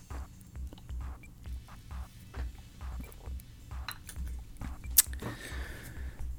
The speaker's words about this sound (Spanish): Espérense, voy a tomar un trago de café.